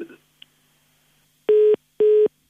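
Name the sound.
telephone line tone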